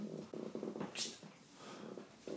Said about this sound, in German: Kleine Katze im Weg.